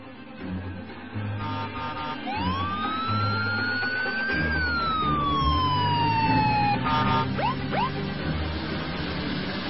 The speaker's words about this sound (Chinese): 我说这话的时候，一辆拉着警笛的囚车开进了法院大门。